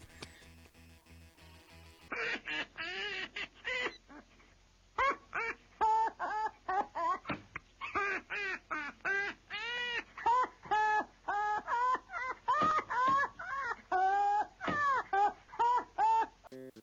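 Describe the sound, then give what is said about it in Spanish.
A bird calls loudly, giving a long run of quick, warbling squawks and chirps in uneven bursts with short pauses between them. “tanto el pájaro como usted, vamos a la siguiente nota.”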